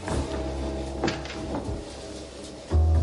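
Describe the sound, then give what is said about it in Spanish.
A door of a house swings shut as people enter the house: a brief knock and faint rattling, then a heavy, low thud as it closes. No one speaks. “Mike cierra la puerta.”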